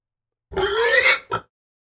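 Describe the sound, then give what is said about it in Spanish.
A pig grunts loudly in one drawn-out, nasal call, followed by a short, clipped oink after a brief pause. “La Cuyancua es parte cerdo”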